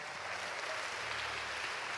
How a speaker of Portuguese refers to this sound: Você pode aplaudir o Senhor aqui. Glória a Deus.